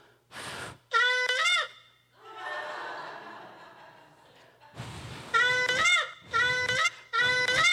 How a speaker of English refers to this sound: You actually have to blow into it to make it work. It, that is strange to see somebody blowing into their cell phone and the sound of the shofar coming out.